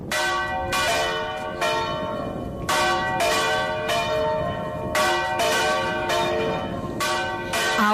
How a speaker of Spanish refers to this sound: Era un toque lento en el que participaban dos campanas distintas y que todavía hoy sobrecoge cuando suena.